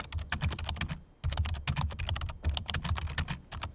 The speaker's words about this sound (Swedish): Mm, tangentbord. Knappande på tangenter. Ja, det är ju rätt.